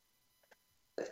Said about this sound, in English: Excuse me, I got to sneeze.